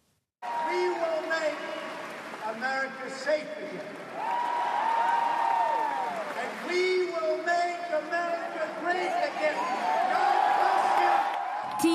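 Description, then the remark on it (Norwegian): A huge crowd in the convention hall in Cleveland roars with sustained cheering, whoops and applause after Donald Trump's nomination acceptance speech, as balloons are released from the ceiling and confetti falls; a loud, dense wall of noise that continues without pause, with excited voices rising and falling above it. “mennesker i landsmøtehallen i Cleveland er i ferd med å gå av skaftet.”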